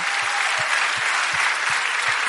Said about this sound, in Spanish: Si lo creen, den un aplauso, aleluya.